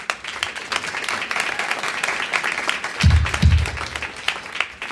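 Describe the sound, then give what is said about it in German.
An audience applauds steadily for two speakers from the Staatstheater Nürnberg, the dense crackle of many hands clapping at a fairly even level, with two heavier low thumps partway through. “Einen Applaus bitte schon einmal.”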